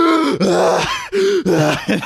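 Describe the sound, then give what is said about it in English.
A voice imitates desperate gasping for air: several loud, strained, groan-like breaths in quick succession, continuous with brief catches between them. The gasping demonstrates swapping arms and going to the other side after a mask is torn off. “so basically it looked like i was totally calm and collect and then what i would do is i would swap arms sometimes and go to the other side and just like just gas just go like and”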